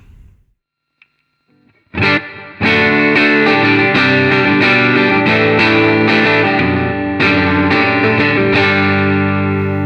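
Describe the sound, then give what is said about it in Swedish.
Electric guitar played through the gold foil pickup alone, strumming rich, sustained chords about once a second with a shimmering, slightly driven effect tone. The playing starts after a short quiet lead-in and continues steadily. “Ja, och nu kommer bara goldfoilen.”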